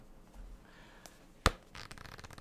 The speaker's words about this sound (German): Das Buch heißt Der Fremde ja, cool, cool, oder? Man kann Bücher blättern. Cool, oder? Ja, ich hab's, das, Haben Sie das gehört, das liebe Zuhörerinnen und Zuhörer?